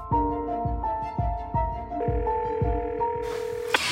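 A telephone rings on the line as a woman phones the hospitals in the area, a steady, tonal ringing pattern with rhythmic low pulses, clear, with no one speaking, before a brief hiss at the end.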